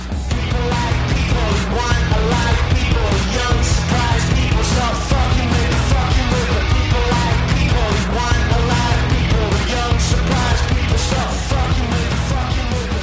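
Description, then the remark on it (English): A loud, dense rock song plays without a break, with heavy distorted instruments filling the mix and a screamed vocal pushing over the top. “and it sounds like a lot of rock songs.”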